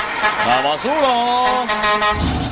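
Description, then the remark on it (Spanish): A voice imitates a garbage truck's calling horn with a loud, drawn-out, nasal tone that swoops up in pitch and holds steady for about a second before trailing off. “existen muchísimos tipos de gritos, como el grito del gas, el grito de la basura,”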